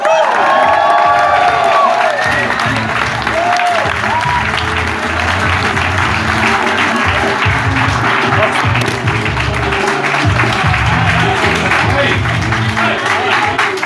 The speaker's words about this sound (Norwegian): Gi en varm applaus til Dag Sørås!